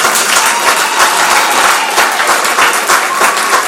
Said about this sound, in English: So we appreciate the Lord. Give them a round of applause.